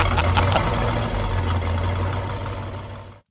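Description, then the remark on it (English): A Ferrari 458's relatively small-displacement flat-plane crank V8 engine runs loud with a steady, buzzing harmonic drone for about three seconds before cutting off abruptly. No one speaks. “That's a flat plane crank. Yes, it is. That's a Ferrari 458, which, as you said, uses a relatively small displacement V8”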